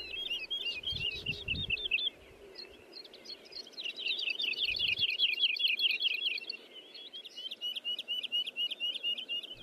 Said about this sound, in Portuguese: Um, enfim, até porque esta altura na primavera as aves estão a marcar território e cantam bastante. É um canto que pode ser escutado todo o ano, por gente de todas as idades, numa saudável partilha com a natureza.